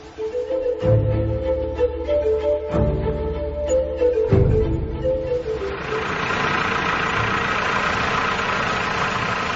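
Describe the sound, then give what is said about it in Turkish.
A tractor engine coughs through three heavy, thumping start attempts, then catches and settles into a loud, steady, rumbling idle. “Doktor, traktörün sesi dostlarımızın pek hoşuna gitmeyecek.”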